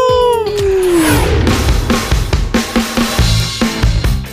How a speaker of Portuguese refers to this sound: O nosso muito obrigado, nosso uivo aqui da boca do lobo.